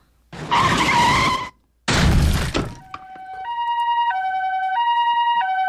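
A loud squeal of skidding tires in a sudden traffic accident cuts off, followed by a second harsh crash-like burst, then a two-tone ambulance siren starts wailing steadily, alternating high and low.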